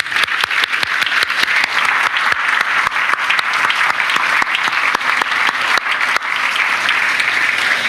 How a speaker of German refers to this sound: Wollen wir unseren vor allem jungen Leuten jetzt einen Applaus geben, oder?